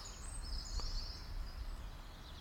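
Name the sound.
chiffchaff singing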